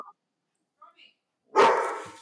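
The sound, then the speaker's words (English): A dog barks once, loud, with a broad harsh burst that trails off, after a couple of brief faint vocal sounds. “Well, yeah, I have an answer, but I'm not trying to get sh- overshadowed by a fucking dog.”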